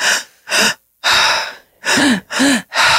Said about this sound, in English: but she does a method that's like you breathe like all, it's always through your mouth, and you breathe to your stomach, your chest, and out